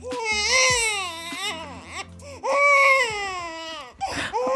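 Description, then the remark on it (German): A baby wails loudly in two long, strained bursts with a brief gasping pause between them, the cries rising and falling in pitch. “Naja, erstmal ist es nervig, oder? So Babygeschreie, zumal wenn es nicht das eigene ist”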